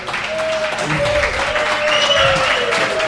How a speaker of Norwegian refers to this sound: Applaus. Veldig glad for at det har kommet en del eh, folk for å høre på oss og gjestene våre.